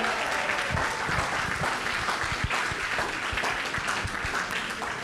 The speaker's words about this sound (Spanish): Date un fuerte aplauso ahí, esto.